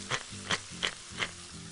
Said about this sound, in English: Just let this continue to cook. Beautiful braise of zucchini and tomato, tart from the tomato, sweet from the red onion.